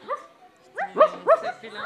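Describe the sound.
A person's voice mimics a dog, letting out a quick run of short, rising yaps and woofs, fairly loud, with no other talking.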